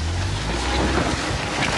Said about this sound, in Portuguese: No município de Floresta, a 450 quilômetros do Recife, as chuvas deixaram comunidades ilhadas. Riachos ficaram cheios Nesta fazenda, o açude transbordou e uma queda d'água se formou.